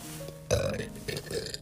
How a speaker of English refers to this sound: Excuse me, that was a really nasty burp, but um that's not what I'm getting at here.